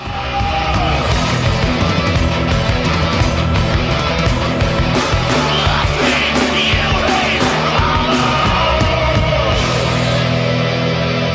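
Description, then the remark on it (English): In a song's bridge, a rock singer screams over a loud, dense wall of distorted guitars and pounding drums, the intense passage driving on steadily from start to finish without a break. “And then it's just the screaming at the bridge as well.”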